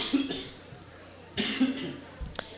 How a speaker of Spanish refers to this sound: Traigo tos